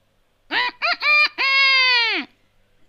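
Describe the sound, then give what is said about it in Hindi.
A single loud rooster crow: three quick clipped notes followed by one long, drawn-out final note that fades off. No one speaks; the crow stands alone, clear. “खरगोश की मुलाकात होती है एक मुर्गे से खरगोश पूछ रहा है क्या आप राजा हो मुर्गा कहता है”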